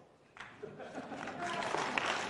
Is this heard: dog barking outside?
no